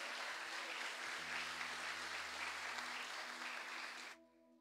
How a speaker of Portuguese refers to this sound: Você pode aplaudir a Jesus nessa noite, meu irmão?